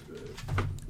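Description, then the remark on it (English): A dog lets out a low, muffled grumble with a soft woof-like burst near the end, a brief, throaty sound at moderate volume with no talking. “That's my dog thinking something's up.”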